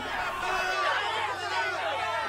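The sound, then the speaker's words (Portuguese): A crowd of many voices shouting at once, a dense, steady clamour throughout with no single voice or words standing out. “Até que os gigantes pararam e ouviram aquela multidão.”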